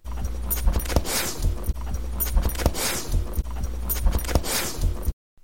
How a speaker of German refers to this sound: Und wenn du Hunde beim Schnüffeln beobachtest, kannst du erkennen, wie sich ihre Nasenlöcher bewegen. Und bei manchen Hunden kann man das Schnuppern auch sehr deutlich hören.